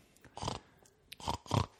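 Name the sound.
person imitating pig oinking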